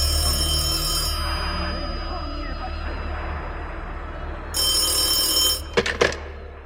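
A home telephone rings with a bright, buzzy bell, sounding in short bursts over a low background hum, followed by a couple of quick clicks as if the receiver is picked up.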